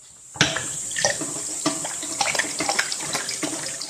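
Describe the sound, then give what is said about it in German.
A tap runs steadily with a broad watery hiss, broken by irregular splashes and sloshes as hands are washed under the stream. “Oh, aber schön Hände gewaschen jetzt noch hinterher.”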